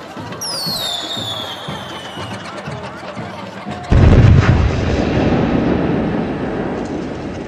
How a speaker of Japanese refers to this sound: 人々は時ならぬ花火の音にはっと我に返りましたそれは普通の花火の5倍ほどの大きさで空いっぱいに広がりました